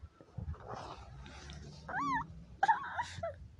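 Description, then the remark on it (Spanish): A baby makes cat-like meowing sounds, several short, high, wavering mews, the clearest near the end, over a low background rumble. “hace como gato.”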